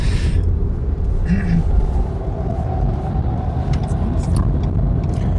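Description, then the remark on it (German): A steady low hum of an electric car driving, continuous road rumble with a faint spaceship-like tonal whine riding above it, fairly loud throughout, with brief bursts of higher hiss. “Bezüglich E-Auto, also wenn ihr äh, zwischendurch ein hört, dann ist es das E-Auto, wie das Raumschiff, wie ich gerade sagte.”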